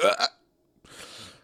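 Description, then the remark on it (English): A voice imitates the short, strained grunt made when bending down to pick something up off the floor, a quick voiced burst followed by a pause, then a longer breathy exhale. It is moderately loud, with no other speech. “You all bend down to pick up something off the floor and you make a sound you didn't expect to make”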